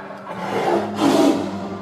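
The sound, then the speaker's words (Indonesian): A hungry tiger's deep, rumbling roar rises twice in quick succession as it attacks on an island, loud, with no talking over it. “Dan suatu hari, ada seekor harimau kelaparan datang di pulau ini dan menerkam kami.”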